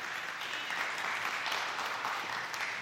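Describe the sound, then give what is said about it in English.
Audience applause during a church sermon, after the preacher tells of students who accepted Christ: many hands clapping in a dense, steady wash of sound that holds at an even loudness for the whole clip, with no clear speech above it. “You can clap.”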